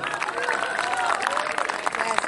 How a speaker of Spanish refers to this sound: Ahora le voy a ceder la palabra y con el renovado aplauso de ustedes a la periodista y escritora Sandra Russo.